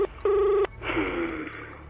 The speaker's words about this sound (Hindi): पलाश ने तुरंत अपनी गाड़ी स्टार्ट की और जेब से फोन निकाल के जिस साहनी साहब से पलाश ने पैथोलॉजी खरीदी थी उन्हें तुरंत फोन लगाया